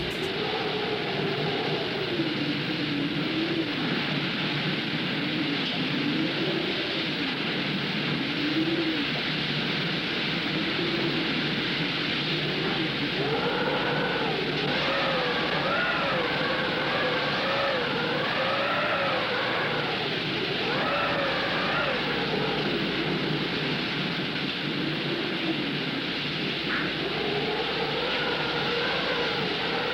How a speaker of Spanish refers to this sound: así de poderoso fue ese huracán. ¿eh? Óiganlo con sonido, lo espeluznante que suena eso. Oigan bien.